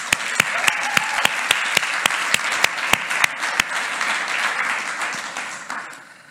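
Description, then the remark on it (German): An audience at a church service applauds to welcome first-time visitors, in a dense, steady wash of clapping, with sharp individual claps popping out above the crowd. It holds strong for about six seconds, then quickly fades away. “Wir wollen dir nochmal einen ganz besonderen Applaus geben.”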